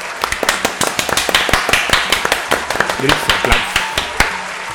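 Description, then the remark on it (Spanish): A burst of loud, sharp claps repeating in an uneven, brisk rhythm for several seconds, like a small group applauding, with a bit of faint background chatter underneath; the applause is given in honor of tacos al pastor. “Pero un aplauso, un, aplauso, merecido, una fanfarria a los tacos al pastor.”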